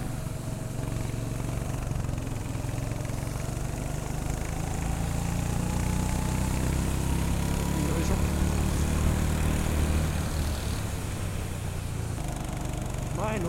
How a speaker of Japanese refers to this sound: コーナーを曲がるところ、えー、続けてクランクというカーブが続くエリアがあるんですけれどもそこがなかなかくせもんですねエンジンの回転数がかなり落っこっちゃう